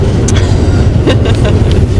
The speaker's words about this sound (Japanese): あ電車だこれね東武スカイツリーライン 今これどこで収録してるかがバレるよダメだいやバレてもいいんやばいダメダメダメ一応ねあ今2本来てるね2本来てる今これ 交差してる上りと下りが交差してるよ